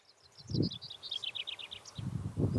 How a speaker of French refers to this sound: Je ne sais pas si vous entendez dehors, je vais arrêter de parler deux secondes, mais on entend euh, les petits oiseaux.